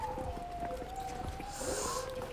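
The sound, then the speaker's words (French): A dog whines in a thin, wavering, high-pitched whimper that drags on without a break, fairly faint against a steady rumbling outdoor background. “Oh, il y a un chien qui pleure.”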